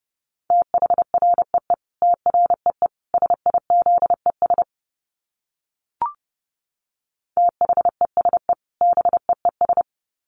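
Rapid Morse code at about 30 words per minute: a steady mid-pitched beep keyed into quick dots and dashes, a pause with a single click midway, then the code resumes. No voices.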